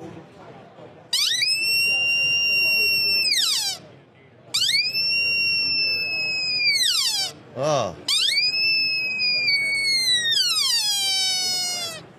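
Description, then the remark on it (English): A sika deer bugles three times in a row, each call a loud, piercing whistle that holds high and then slides downward, with a brief voice between calls. “So this is what a bugle sounds like on a Sika deer.”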